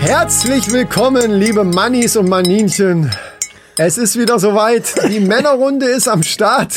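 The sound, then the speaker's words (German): A spoon stirs freshly made tea in a cup, with small repeated clinks against the porcelain, heard faintly beneath a man talking steadily throughout, with a short pause midway. “Das, was ihr hört, ist natürlich der, äh, ist die Tasse, die er gerade umrührt, weil er sich noch einen Tee gemacht hat.”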